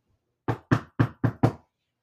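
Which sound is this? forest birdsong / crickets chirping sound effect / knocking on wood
knocking on wood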